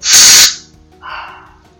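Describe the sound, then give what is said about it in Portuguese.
A short, loud hiss from a spray can being pressed to signal a dog, lasting about half a second, followed by a fainter, softer sound as it trails off. “Conforme vocês podem ver, basta eu apertar o spray que ele começa a latir.”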